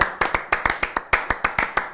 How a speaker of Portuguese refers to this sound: Olha só, vou te dizer com sinceridade, eu bateria palmas em homenagem a isso, tudo que você falou. Bater uma salva de palmas aqui pro profissional.